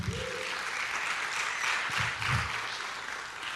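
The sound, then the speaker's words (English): A crowd claps for the Lord in the morning, a dense wash of many hands applauding at once with scattered whoops and voices rising underneath, sustained at an even level throughout. “Can you give the Lord a good clap this morning?”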